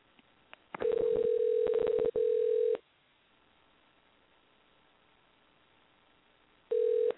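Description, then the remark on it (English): A steady telephone tone sounds twice in quick succession with a brief break, accompanied by clicks, as a call is dialed through a switchboard, then a long quiet line before the tone returns briefly at the end. No one speaks. “Sometimes it takes a couple of tries to get somebody on the phone this way, dialing through the switchboard.”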